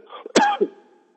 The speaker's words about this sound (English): okay, I'm coughing here.